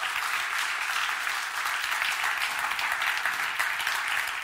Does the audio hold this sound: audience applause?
yes